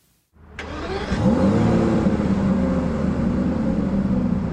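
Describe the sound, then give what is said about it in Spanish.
After a brief silence, the engine of an Aston Martin DB11 grand tourer sports car fires up and revs, its deep rumbling roar rising in pitch, then holding loud as it keeps running. No one speaks. “Este es el Aston Martin DB11, los ejecutivos lo han apodado el único modelo más importante en la historia de la empresa, porque muestra lo que Aston Martin quiere ser de ahora en adelante.”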